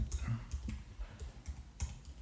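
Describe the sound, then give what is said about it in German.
Quick, irregular keystrokes clatter on a laptop keyboard as someone types a note, the word 'Körperflüssigkeiten' (body fluids), a handful of sharp clicks with a faint murmur underneath. “tippt live im Podcast”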